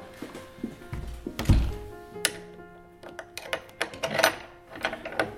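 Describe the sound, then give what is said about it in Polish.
A house door swings shut with one heavy, low thud as women go inside, followed by a few lighter clicks and rattles as the latch settles. No one speaks. “Dobrze, zamknęłyśmy jak trzeba.”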